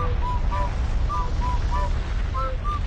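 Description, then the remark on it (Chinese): A volcano erupting on a clear day, spouting fire as the ground shakes: a loud, steady, deep rumbling roar that shakes on without pause, dotted with short, high, whistling tones scattered across it. “以前，以前，很久以前，在一个晴朗的日子里，山砰砰砰的喷火，地咚咚咚的摇晃。”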